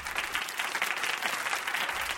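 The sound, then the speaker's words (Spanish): Steady applause from a group, a dense crackle of many hands clapping at once, sustained and fairly loud throughout with no voices over it. “El hecho de que dediques unos minutos a tu crecimiento personal es de aplaudir.”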